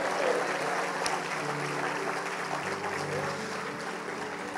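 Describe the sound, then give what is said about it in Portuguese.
A church audience applauds Jesus during worship, a dense wash of clapping at an even volume throughout, with faint voices mixed into the crowd noise. “filho de Davi, filho de Davi, aplauda Jesus, aleluia, oh glória!”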